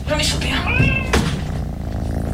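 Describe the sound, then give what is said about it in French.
A cat named Châtaigne, somewhat dirty, meows: a drawn-out wavering cry followed by a short sharp mew, over a steady low hum in the background. “Oh putain, ah, il est mignon il est un peu crade quand même ton chat.”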